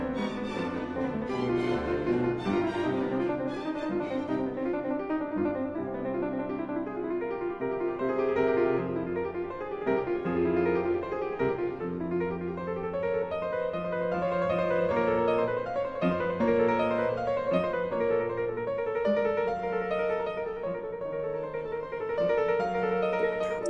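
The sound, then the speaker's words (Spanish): A classical piano sonata by Clementi, the piece with which he opens a piano duel in Vienna, plays on its own, with steady, flowing melodic lines over a full harmonic accompaniment at an even, moderately loud level throughout. “Y Clemente inicia con una sonata eh, que suena más o menos así.”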